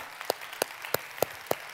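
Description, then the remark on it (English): An audience claps together in a steady rhythm, six sharp claps about a third of a second apart over a low background hum, with no talking. “I know what some of you are thinking because you're like clapping, you're like, hold on a minute.”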